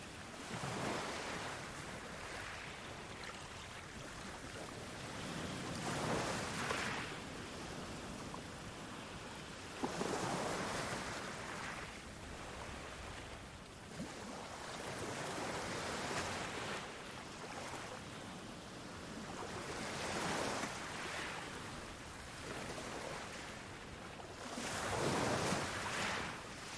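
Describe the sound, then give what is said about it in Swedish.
Small waves wash gently onto a pebble beach in a steady rhythm, each soft swell of surf rising and fading every few seconds, drawing small stones back as the sea retreats, against a constant watery hiss, with no voices. “Ett litet vågskvalp sköljer upp över dina bara fötter och drar sig sedan tillbaka ut mot havet.”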